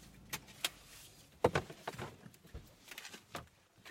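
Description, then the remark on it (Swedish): Sharp clicks and clunks like car doors opening and shutting, with a jingle of keys and shuffling movement as people stop the car where the road bends and jump out. No one speaks. “Efter en bit kröker sig vägen och vi stannar bilen och hoppar ur.”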